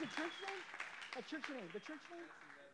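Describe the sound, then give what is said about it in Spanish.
Audience applause at a church service for the visiting church from Sacramento, a steady wash of many hands clapping, running under a man's voice talking over it throughout. “Un aplauso para Sacramento, la iglesia de Sacramento.”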